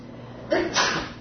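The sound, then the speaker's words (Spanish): A single short sneeze, a quick intake followed by a sharp burst of breath, moderately loud against a quiet background. “Salud. Gracias.”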